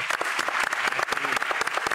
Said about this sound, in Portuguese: Está aqui com a gente na a nossa plateia o professor Irineu Loturco. Por favor, pode aplaudir o professor.